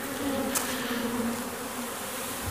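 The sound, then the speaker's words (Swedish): A dense, steady drone of many very active honeybees buzzing together across all the beehives, a continuous hum with no pauses and no voices. “Fantastiskt vilket surrande ljud här på alla bikuporna tillsammans.”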